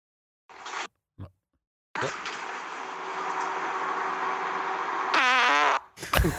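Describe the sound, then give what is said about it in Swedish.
A tight, strained fart recorded in a car: a couple of brief sputters, then a long steady rasping blast lasting several seconds that ends in a squeaky, wavering, high-pitched trill, fairly loud. “Det låter som att du aldrig har fisit eller bajsat i hela ditt liv.”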